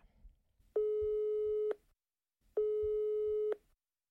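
Two steady electronic beeps from a phone line, each about a second long with a short pause between, the ringing tone of an outgoing call to a sister, heard clearly and alone.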